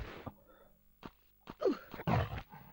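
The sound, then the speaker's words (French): A bear in the video game Tomb Raider 3 growls and roars in a series of harsh bursts as it attacks the player, with short gaps between them, growing louder and more aggressive toward the end. “Je me fais démonter par l'ours en même temps.”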